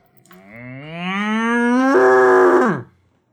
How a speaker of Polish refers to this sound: Czy to była krowa? No to krowa